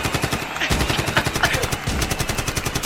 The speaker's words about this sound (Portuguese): editor, uma rajada de AK-47 com disparos de Glock.